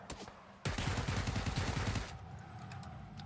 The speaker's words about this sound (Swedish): Nej, de skjuter, de skjuter!